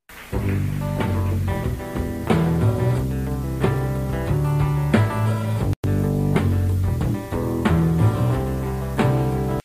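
An upbeat rock song with a country feel plays loud and full, steady drum hits driving a busy band mix, with a split-second dropout midway before the music resumes.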